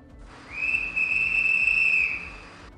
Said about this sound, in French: Un autre coup de sifflet retentit.